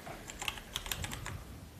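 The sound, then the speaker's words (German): Rapid, irregular clacking of keys on a Logitech G910 mechanical computer keyboard, a burst of sharp clicks, fairly quiet, with no voices. “Du hast auch so eine IBM-Tastatur, oder”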